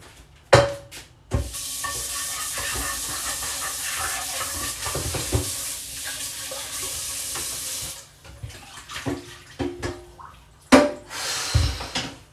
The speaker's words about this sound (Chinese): 好，我就把锅洗一下。